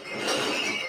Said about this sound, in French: Pardon pour ce bruit, il y a le voisin qui vide ses bouteilles.